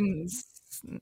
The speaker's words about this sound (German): Gesundheit.